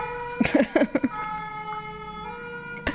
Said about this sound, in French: Ah, euh, pardon pour les pompiers. Ah. Attendez, il passe vraiment sous ma fenêtre, là.